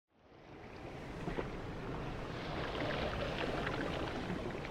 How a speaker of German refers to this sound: Die Wellen der türkisblauen Karibik schlagen auf dem palmengesäumten Sandstrand von Santa Marta auf.